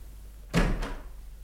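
A door opens with a short rush of sound and a second click or knock right after as a visitor comes in, then everything settles back to quiet. No one speaks.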